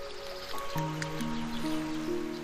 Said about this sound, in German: Du spürst die Frische des Wassers und kniest dich nieder an den Bach. Dann lässt du eine Hand in das Wasser gleiten und fühlst die angenehme Frische auf deiner Haut.